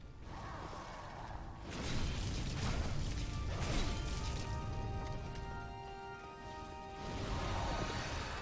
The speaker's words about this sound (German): ob ihr es im Hintergrund hört, aber der Drache, der ganz unten war, der kämpft doch gegen den NPC. Man hört die ganze Zeit das Feuer von ihm. Hört ihr es?